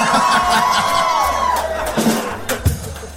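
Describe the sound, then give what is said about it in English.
An audience cheers and applauds a singer's vocals in a dense, continuous wash of noise, with a few high whoops rising above the crowd before it starts to thin out near the end. “applause for me on the vocals.”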